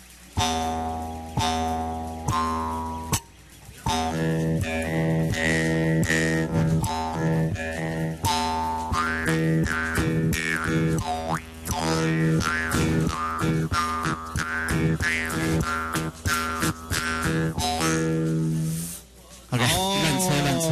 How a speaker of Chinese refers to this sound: 这个就是这个单簧片，这个口簧琴的声音哈，我听起来很饱满